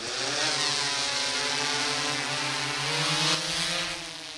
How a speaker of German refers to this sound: Eine Drohne steigt auf und fliegt über dem Wald hin und her.